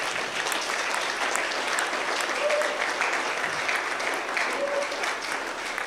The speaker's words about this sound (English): Give God a better clap offering.